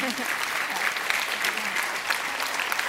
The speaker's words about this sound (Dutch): Laten we haar een warm applaus geven.